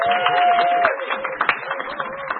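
An audience claps for a couple of seconds in response to greetings sent by Pastor Moses of the Lighthouse Church UK, a dense, steady patter of many hands with a faint sustained tone running underneath, the clapping loosening slightly toward the end.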